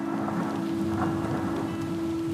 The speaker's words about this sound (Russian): Пошел дождь. Я бы даже сказал, хлынул. Капли дождя падали на линии на капоте, размывая их.